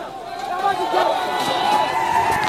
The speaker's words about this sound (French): Soudain, les manifestants se mettent à courir, visiblement effrayés. La confusion règne, puis des coups de feu retentissent. Plusieurs hommes s'écroulent, tandis que la salve se poursuit.